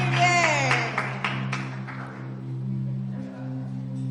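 A brief, scattered burst of clapping from a small group, about half a dozen claps in the first two seconds, fading out over a steady low hum.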